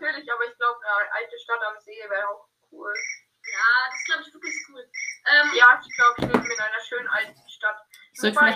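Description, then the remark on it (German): A mobile phone rings with a quick series of bright, evenly spaced electronic beeps while people talk over and around it. “mal mein Handy stumm schalten.”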